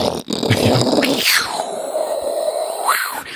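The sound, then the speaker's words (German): A voice mimics something falling through the air: a rough, breathy burst, then a long whistling tone sliding steadily downward and lingering low before a short upward flick at the end. “so ein Sausegeräusch. Und das hört man hier unten dann noch.”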